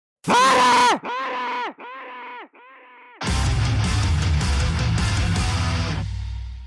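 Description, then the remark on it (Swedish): A loud, strained vocal cry opens, followed by three shorter, fainter wails that trail off, then a burst of full, busy music takes over until the end. “Så säger vi god jul och gott nytt år från oss och nu kommer ett rungande, ringande, sparka in dörren och eh, säg god jul och sedan chippa efter luft och skrik!”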